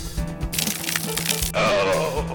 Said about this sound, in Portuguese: Relâmpago.